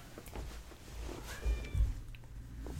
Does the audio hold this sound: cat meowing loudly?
yes